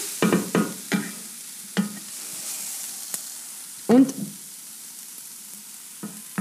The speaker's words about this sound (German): Und wie schaut es in unserer Pfanne aus? Mhm. Der Zwiebel braucht noch ein kleines bisschen. Supidupi. Ich rühre ein bisschen herum in der Pfanne.